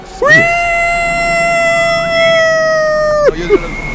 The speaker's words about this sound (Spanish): El carrito de los camotes.